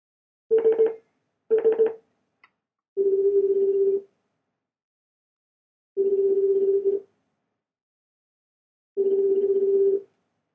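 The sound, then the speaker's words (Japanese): A couple of quick beeping tones, then a steady telephone ringback tone sounding three times, each about a second long with even pauses between, clear and alone with no talking, as a phone call is placed to a guest. “早速、あの方に電話してみたいと思います。”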